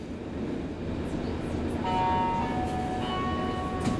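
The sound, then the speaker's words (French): A metro train rumbles steadily in front of the Parc-Extension metro station, and about halfway through a high, sustained whine of motor or brakes rises over the low roar. No voices are present. “on est devant le métro Parc Extension, donc Métro Parc.”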